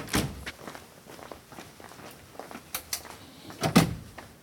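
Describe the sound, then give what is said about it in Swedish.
Footsteps walking at a steady pace as people quickly move over to another room, with a few soft thuds and knocks, like a door or furniture being bumped. No one speaks. “Ja, då har vi gjort en rask förflyttning här. Nu är vi på ditt rum.”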